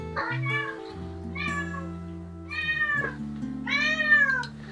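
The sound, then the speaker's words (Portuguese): A cat meows repeatedly, four drawn-out, rising-and-falling cries at a steady pace, clear over a low, constant hum in the background. “O gato tá, pelo menos.”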